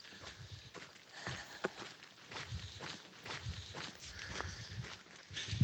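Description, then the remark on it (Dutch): Steady footsteps crunch along at a walking pace, with a creaking backpack rustling and squeaking in rhythm with each stride. No one speaks. “En zoals je hoort aan het gekraak van mijn rugzak en mijn indrukwekkende voetstappen, ben ik nog aan het lopen.”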